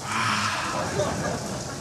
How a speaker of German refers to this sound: Komisch. Kein Mensch hier und alle Duschen laufen. Ja, echt.